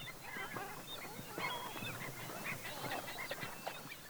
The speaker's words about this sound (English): Those bird calls you hear are a combination of gulls, coots, killdeer, pelicans, stilts, avocets, terns, cormorants, and several other birds that populate the Cienega.